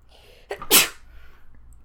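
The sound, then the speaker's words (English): A single loud sneeze: a short sharp inhale followed by a forceful bursting exhale, then quiet room tone. “Oh, I feel like Bless You would be a good username.”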